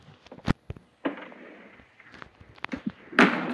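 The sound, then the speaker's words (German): A door slams shut amid a series of sharp wooden bangs and knocks, ending in a louder, rattling impact; no one speaks. “Und die Tür ist zugeflogen.”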